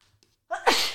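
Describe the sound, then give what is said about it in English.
A single loud sneeze with a short rising intake before a sharp, breathy burst that trails off. Nothing else is heard around it. “Excuse me, I need to sneeze.”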